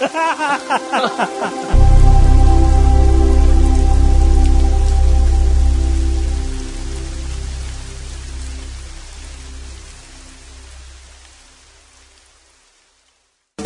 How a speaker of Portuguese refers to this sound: Só de aí... chuva, Léo. Só de, só chuva aí.